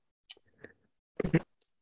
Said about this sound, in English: Let me get a sip of water real quick. Sorry.